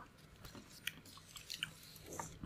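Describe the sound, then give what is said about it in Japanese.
Quiet chewing of soft spaghetti, with wet smacking and small clicks recurring irregularly across a couple of seconds, no talking. “作る模様から食べる模様までお送りしましたが、いかがでしたでしょうか。”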